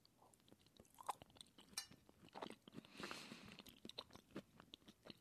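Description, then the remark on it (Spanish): Wet chewing of a bite of apple pie: a run of soft crunches and smacking mouth sounds, with a faint clink of a utensil early on and no talking. “A ver, parte donde me voy a tener que detener porque necesito un trago de leche o una probada de pay de manzana.”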